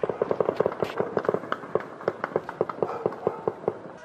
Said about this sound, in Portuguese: Os disparos atingiram a vitrine desta loja, que fica numa das principais ruas do bairro. Passageiros de um ônibus também se assustaram depois que o veículo foi atingido por uma bala perdida.